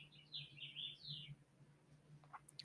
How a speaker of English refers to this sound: I hope you hear the birds because even they're in support of this.